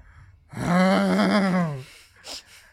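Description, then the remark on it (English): A voice imitates a man's drawn-out, pained groan for help, one long wavering moan held for over a second, fairly loud, followed by a short breathy exhale. “Man groaning for like helps.”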